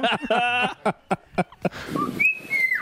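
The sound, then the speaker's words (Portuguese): A parrot lets out a string of shrill, warbling vocal bursts, then a couple of clear, high whistled tones that slide slightly in pitch, all without any talking. “Isso é um papagaio, gente. Isso é papagaio.”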